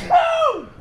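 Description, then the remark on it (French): A single sneeze bursts out sharply, then trails off in a voiced, downward-sliding tone lasting under a second, fairly loud and with no talking over it. “à tes souhaits”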